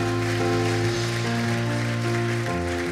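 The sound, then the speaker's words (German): A steady wash of crowd applause at a church service keeps up throughout, over sustained keyboard chords playing underneath, with no voices standing out. “Lass uns hier mal einen großartigen Applaus geben.”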